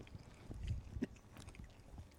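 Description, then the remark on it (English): Quiet, irregular chewing of biltong dried beef by more than one person: soft wet smacks and muffled crunchy bites in an uneven rhythm, with no talking over them. “you can hear us chewing on this biltong.”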